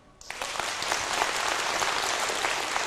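An audience bursts into applause after a brief quiet moment, a dense, steady wash of many hands clapping that holds loud and even to the end, with no voices over it.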